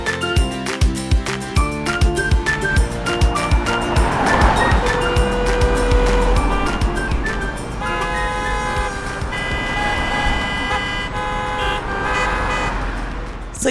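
Instrumental intro music with a steady, punchy beat and sustained bright tones, played loud and up front for about fourteen seconds with no voices.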